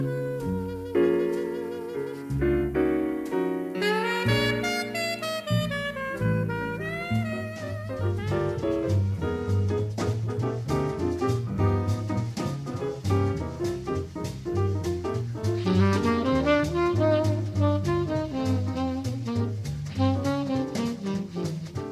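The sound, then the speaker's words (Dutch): Jazz recording with a saxophone carrying winding melodic lines over a busy accompaniment, playing steadily and fairly loud throughout, with no voices. “Maar de muziek die je hoort draai ik niet voor niets.”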